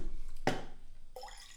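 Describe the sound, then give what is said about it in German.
Water pours from a Brita filter jug in short bursts: a quick splash, then a brief trickle whose tone rises as the vessel fills. Fairly quiet, no voices. “Dein Wasseraufbereiter heißt Pritter.”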